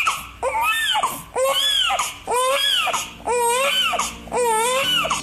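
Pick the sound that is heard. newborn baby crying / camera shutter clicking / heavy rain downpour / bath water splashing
newborn baby crying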